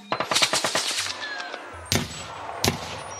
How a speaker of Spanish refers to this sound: Así que volvió a dar la orden de disparar. ¡Fuego! Todos los militares empezaron a disparar.